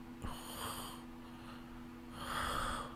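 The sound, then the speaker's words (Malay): Someone imitates a husband snoring with their voice: two raspy, drawn-out snorting breaths separated by a short pause, with nobody talking over them. “Uh, saya uh, mungkin suami dia tak berdengkur macam tu lah ya yeah?”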